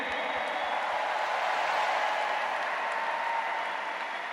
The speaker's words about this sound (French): Bonne main d'applaudissement pour Charles Seguin.